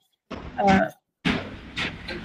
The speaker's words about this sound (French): désolée, je, il joue avec, avec ses portes là.